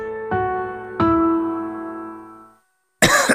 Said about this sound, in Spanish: ¿Cansado de toser?